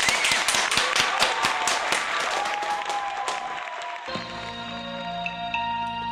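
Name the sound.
audience applause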